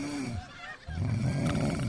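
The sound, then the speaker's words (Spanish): A person loudly imitates snoring, two rough, rattling breaths with a brief pause between them. “Hay gente que ronca así,”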